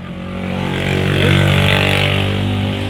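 A motorcycle engine drones past with a steady, buzzing hum that swells louder in the middle and eases off toward the end, with no voices.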